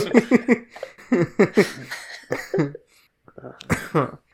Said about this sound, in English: The worst thing has been having because since like three or four pods ago, I've had a terrible cough,